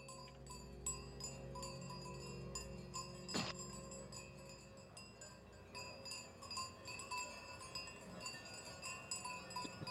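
Many bells ring continuously at a distance, their overlapping metallic tones forming a steady, shimmering jangle, with one sharper clank standing out partway through. No one speaks.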